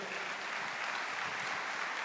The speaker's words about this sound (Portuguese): Você pode aplaudir o Senhor de toda a tua vida.